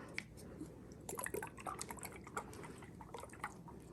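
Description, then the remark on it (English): Liquid sloshes inside a small healing-potion prop bottle, a quick run of splashy, gurgling bursts with little drip-like plinks, fairly quiet, with no talking. “Let's see if it makes cool liquid sounds.”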